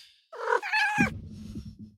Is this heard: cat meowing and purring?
yes